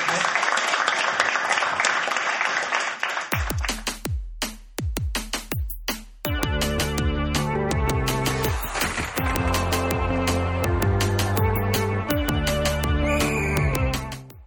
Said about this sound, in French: Un moment d'applaudissement pour la gang de la balustrade.